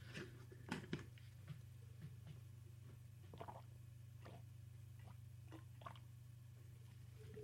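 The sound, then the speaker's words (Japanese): Quiet sipping and swallowing sounds as a person drinks water after choking: small wet clicks and soft gulps scattered irregularly over a steady low hum, with no talking. “なんか、むせたっぽいです。水を飲みます。”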